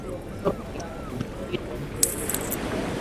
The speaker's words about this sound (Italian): questo tra l'altro come si sente il mare, anche da qua all'interno del bar, senti la gente che parla, chiacchiera, fa, eppure si sentono le onde del mare. Spettacolare.